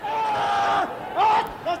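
A man lets out a long, loud, sustained scream, followed by two shorter yelling cries rising and falling in pitch, sounding like a forceful battle shout.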